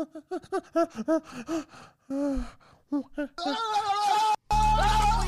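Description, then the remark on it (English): A man's voice imitates a monkey, starting with a rapid string of high, pitched hoots, then breathy gasps and strained, screechy chatter, loud. “A, I can do a really good monkey.”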